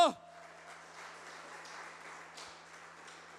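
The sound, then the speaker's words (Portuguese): An audience applauds Jesus loudly in a steady, continuous wash of clapping that lasts several seconds, evenly sustained, with faint crowd voices mixed in beneath it. “Aplauda Jesus bem alto.”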